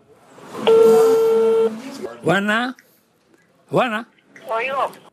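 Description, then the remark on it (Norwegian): A steady electronic telephone tone sounds for about a second as dissidents in Havana, Cuba place a call, then voices speak in short bursts over the line. “Dissidentene er bekymret for en kamerat og ringer.”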